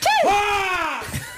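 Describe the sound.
A voice imitates a loud, scream-like sneeze: a single high, strained cry that swoops up, then glides steadily downward for about a second before cutting off.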